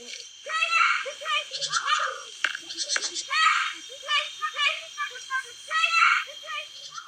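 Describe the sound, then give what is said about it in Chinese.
A bird mimics the sound of three to five children chasing and playing in a courtyard, all the yard's sounds blended into one scene: overlapping high, chattering voice-like calls, giggly bursts and brief shrieks in quick irregular runs, fairly loud throughout. “或者比如说，有个院子里面三五个小朋友在那边追逐打闹， 嗯 它能模拟出来这一种院子里面所有声音混合在一起的一个场景声。”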